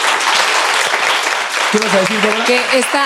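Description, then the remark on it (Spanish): A crowd applauds audience members for their questions with dense, steady clapping throughout, and about halfway through a voice starts talking over the applause. “un aplauso por sus preguntas a todos.”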